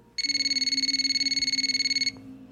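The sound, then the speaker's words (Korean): A telephone rings with an incoming call from a friend, a rapid electronic trill of bright stacked tones pulsing steadily for about two seconds before stopping abruptly; no voices are heard. “그리고 며칠 뒤 친구에게 전화가 왔습니다.”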